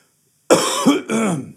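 Two rough, throaty coughs in quick succession, fairly loud, with a brief gap between them and quiet before.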